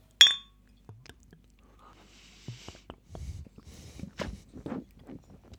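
A single bright glass clink rings out sharply at the start as glasses are clinked in a toast, followed by faint rustling, soft handling noises and murmured voices in the background.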